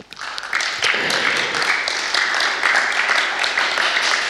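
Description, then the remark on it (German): Sustained applause from an audience welcoming a speaker to the front, a dense crackle of many hands clapping at once, steady and fairly loud for several seconds without letting up. “Deswegen, Dani, darfst du mal nach vorne kommen und einen herzlichen Applaus.”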